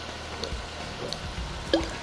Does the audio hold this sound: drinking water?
yes